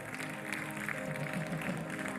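A steady wash of applause from a large church audience applauding the Lord, dense and continuous, with a faint murmur of voices mixed underneath.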